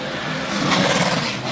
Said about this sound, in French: On a la voiture 18 de Jean-Philippe Bergeron également qui euh, s'amène sur le circuit pour ses premiers tours.